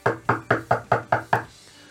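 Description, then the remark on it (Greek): Seven quick, evenly spaced knocks on a wooden door, fairly loud, each with a short hollow thud, followed by a moment of quiet. “Στην Αγγλία θα είχαν πάει στο βαρ, θα είχαν χτυπήσει την πόρτα.”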